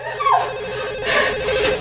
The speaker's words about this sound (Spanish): Ni siquiera tienen tiempo de gritar cuando el teléfono de la cocina vuelve a sonar, pero esta vez es Ed.